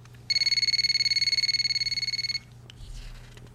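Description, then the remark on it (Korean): A telephone rings with one sustained burst of rapid, high-pitched electronic trilling lasting about two seconds, then cuts off, followed by a faint rustle. “그날 저녁도 그녀와 만나기로 해서 나갈 준비를 하는데 전화가 왔어요.”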